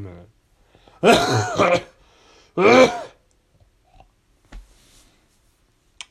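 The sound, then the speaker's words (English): Two loud, harsh coughing bursts from a person with a cold, the first longer and the second short, followed by quiet, with a few soft words spoken in between. “In fact, I feel I tickle my throat coming on now, so you might hear a pathetic cough right now, actually.”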